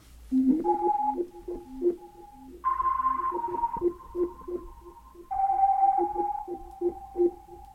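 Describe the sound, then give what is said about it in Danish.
A short melodic figure played on a sampled keyboard: pulsing, rhythmic low notes beneath longer sustained higher tones, repeated in three close, clear phrases with no talking. “Og så begynder det for mig at blive, blive ret interessant lige pludselig, og, og i den her sammenhæng, der har jeg så lavet en lille figur, der lyder sådan her.”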